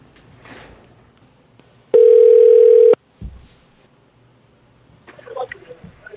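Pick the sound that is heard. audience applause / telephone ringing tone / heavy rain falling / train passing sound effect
telephone ringing tone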